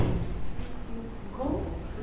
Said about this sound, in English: closing closing the door.